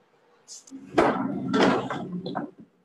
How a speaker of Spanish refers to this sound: Voy a poner una silla.